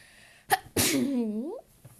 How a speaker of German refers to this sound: ich muss einfach gerade niesen.